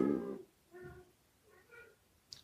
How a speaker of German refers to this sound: ich weiß nicht, ob man das hört, aber hier dreht gerade der Kater völlig durch.